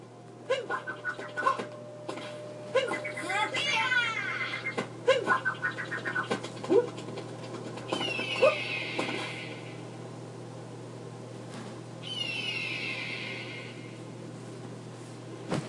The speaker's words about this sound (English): There's that bird.